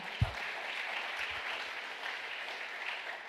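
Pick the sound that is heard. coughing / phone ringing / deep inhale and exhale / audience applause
audience applause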